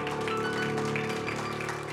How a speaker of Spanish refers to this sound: ¿Cuántos dicen amén? Dale ese aplauso fuerte al Señor.